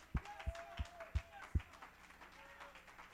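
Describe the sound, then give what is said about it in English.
A group claps hands together to give God praise, in a steady rhythm, five strong beats about a third of a second apart, then fades into a faint murmur of voices and scattered applause. “Somebody ought to clap your hands and give God praise.”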